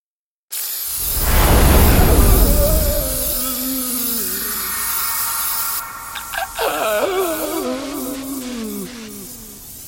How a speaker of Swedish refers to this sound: Snögubbarnas plågade skrik blev allt högre.